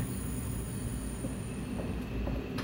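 A train rolls steadily along the rails with a continuous low rumble and faint high whine, even throughout, with a couple of soft metallic clicks near the end and no voices.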